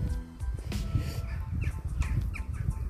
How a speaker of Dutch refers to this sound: En de vogeltjes worden allemaal wakker. Je hoort ze op de achtergrond misschien ook wel.